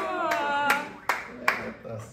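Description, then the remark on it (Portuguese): A few sharp, evenly spaced hand claps, roughly four in a steady rhythm, ring out over a sustained humming voice. It sounds like a brief round of applause rather than a full ovation. “Salve de palmas, é aí.”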